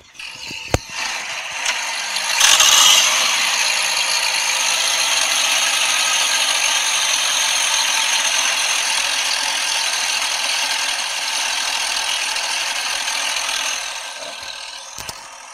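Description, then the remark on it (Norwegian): An outboard motor from a maker that specialises in the largest series-produced outboard motors runs steadily for about fifteen seconds, with a microphone held up to it: a loud, even mechanical drone with a buzzy, rattling edge. It swells briefly early on, then holds a constant level with no one talking. “Ja, her er det da i motsetning til å ha fokus på 2,5 hestekraft og opp til de største, så er det en produsent som har spesialisert seg på å lage de største utenbordsmotorene i, serieprodusert i”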